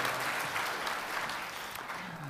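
An audience claps steadily, a dense wash of many hands keeping an even, sustained level for the whole stretch with no voices standing out.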